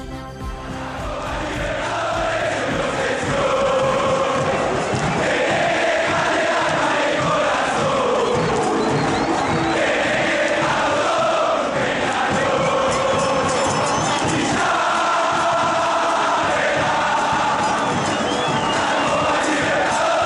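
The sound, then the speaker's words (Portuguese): A large stadium crowd of football fans from two rival sets of supporters, among the most traditional in the world, chants loudly and continuously, with rhythmic, repeating sung phrases and surging cheers filling the space, steady and dense throughout. “não há nada melhor para começar um podcast sobre futebol que ouvir duas das torcidas mais tradicionais do mundo.”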